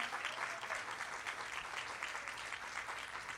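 A crowd claps steadily, a dense wash of many hands applauding at even volume throughout, with no voices standing out.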